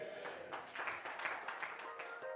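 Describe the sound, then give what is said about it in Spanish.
A crowd claps steadily for a couple of seconds in applause to the Lord, a dense, even patter of many hands with no clear voices on top. “¿Alguien me acompaña con un amén y un aplauso al Señor?”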